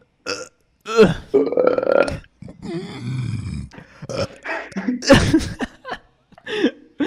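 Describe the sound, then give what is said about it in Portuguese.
Several loud, drawn-out burps follow one another as people take turns belching in a burp contest, with short gaps of silence between the croaky, rumbling bursts. “Vamos fazer uma competição de arroto agora.”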